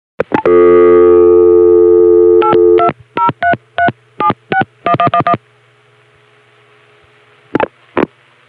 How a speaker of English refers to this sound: That's going to get a dial tone and dial into an outwatts line